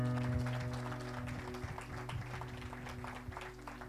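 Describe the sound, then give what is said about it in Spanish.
An audience applauds for the Lord in a steady wash of many overlapping claps, moderately loud, over a sustained low hum of instruments or an organ-like drone. “¿Qué tal si le das un aplauso al Señor un momento?”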